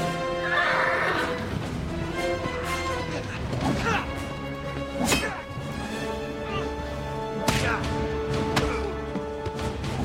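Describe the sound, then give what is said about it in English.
A horse whinnies and snorts while hooves clop and thud unevenly, with a few sharper knocks, over a steady busy background that may include faint voices. “You don't have a fight under a horse. You're liable to get kicked.”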